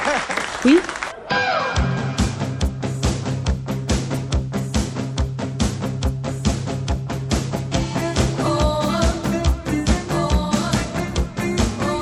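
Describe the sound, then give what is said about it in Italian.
An audience applauds loudly and continuously after a brief opening moment, the dense clapping carrying on over steady, sustained music until the end. “Applaudite e come non male, grazie.”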